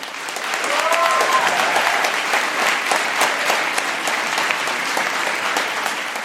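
An audience claps for a listener's question about a zombie apocalypse, rated by an applause meter: a steady six-second dense patter of hand claps at moderate volume, with a brief whistle or cheer rising near the start.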